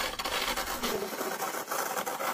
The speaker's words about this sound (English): Now it's time to find out what material this phone is really made of. The Blade of Truth reveals the wonderful sound of metal on metal which is one of the premium materials included in most flagships.